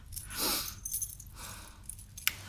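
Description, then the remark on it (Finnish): Metal buckles on a dog harness jingle in a few uneven bursts as the harness is put on a dog, light and rattly, ending with a sharp little clink. “Istunut edes sen aikaa, että saan nämä valjaat sulle.”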